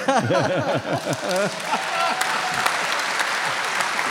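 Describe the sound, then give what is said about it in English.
A crowd claps steadily and loudly for about four seconds, with rising, wavering cheers and whoops over the clapping at the start before it settles into dense, continuous applause. “Yeah, I mean, my God, I um, I love being clapped.”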